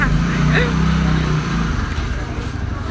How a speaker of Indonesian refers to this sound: pemerataan akses dan kualitas pendidikan perlu diiringi dengan dengan suara motor yang luar biasa